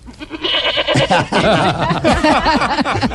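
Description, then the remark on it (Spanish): A person imitates a goat's bleat, a wavering, quavering voice held for a couple of seconds, loud, with a brief breathy lead-in before it. “Bueno, la cabrita y como hace una cabra, les voy a decir los años mientras tanto.”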